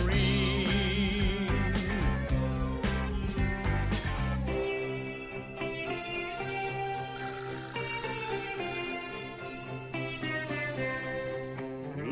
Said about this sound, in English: Oh yeah, my green tambourine. I'll play my green tambourine. If you listen, I will play.